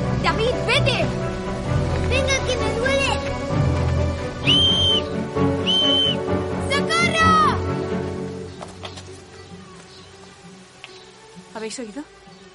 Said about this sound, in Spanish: ¿Oís el silbato? ¡Socorro! Viene de allí. Viene de allí.